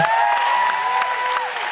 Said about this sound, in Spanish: Hay muchas chicas gritando por aquí. En verdad es un gran concierto.